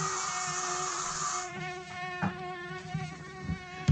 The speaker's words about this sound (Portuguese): Olha o mosquito. Ô, oh, meu Deus do céu. O mosquito só fica embaixo da mesa.